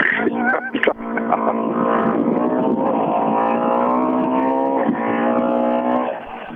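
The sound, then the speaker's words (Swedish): A racing car engine, running on all four cylinders, roars loudly and steadily, its harmonic whine rising and falling slightly in pitch as it drives past, with a brief sharp burst near the start. “inget större fel på den maskinen.”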